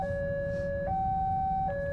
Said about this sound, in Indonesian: gue lagi berhenti di palang kereta berisik banget ya sih suaranya berisik ya ah ya udahlah mau gimana lagi namanya juga berhenti di palang kereta